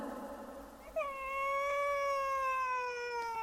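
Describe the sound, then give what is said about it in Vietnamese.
A child cries in a room in one long, sustained wail that starts abruptly and holds a steady, slightly falling pitch, fairly loud and clear over a faint background murmur, with no talking. “Có tiếng trẻ khóc trong phòng, người phụ nữ mặc kệ.”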